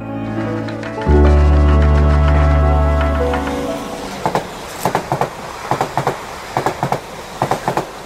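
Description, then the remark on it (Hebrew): A train rumbles past on railway tracks, starting with a loud low roar that fades into a steady rhythmic clickety-clack of wheels over rail joints, heard clearly with no talking. “מסילת הרכבת לאילת ארוכה מאוד, 240 קילומטר.”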